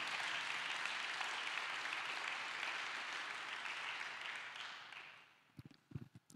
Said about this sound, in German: Dem kann man auch mal einen Applaus geben.